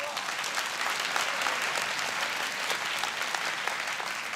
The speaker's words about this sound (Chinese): 哇，给她一个掌声。